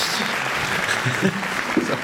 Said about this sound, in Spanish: No para de aplaudir.